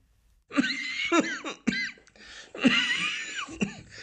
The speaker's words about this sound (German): Entschuldigung. Trockener Husten.